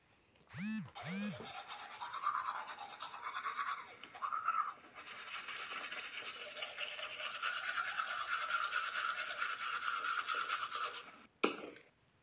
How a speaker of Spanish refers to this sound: Una persona lavándose los dientes.